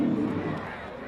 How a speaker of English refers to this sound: I think he swung at ball four, fouled it into the BYU dugout. The fans applaud the nice snag made on the top of the rail.